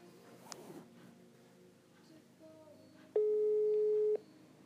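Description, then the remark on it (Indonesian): A phone's outgoing ringing tone sounds once as a call is placed to a friend: a loud, steady electronic beep lasting about a second, preceded by faint room noise and a brief click. “nah, jadi di sini aku mau langsung telepon aja ya. Uh, coba kita telepon anaknya.”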